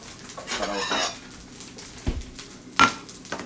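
Metal pan and utensils clatter and scrape in quick irregular bursts, with a sharp clank near the end, while fried rice is stirred and tossed in a wok.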